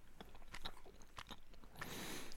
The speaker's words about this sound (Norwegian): hører du smattinga? Den er til deg.